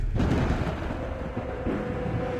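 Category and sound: sound effect, thunder rumble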